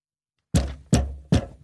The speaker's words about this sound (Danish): Åh, vil du så holde op med det tæskeri? Det er overhovedet heller ikke den rigtige lyd. Forestil dig, at du taber en boksepude for fire sal. Ja. Sådan lyder det.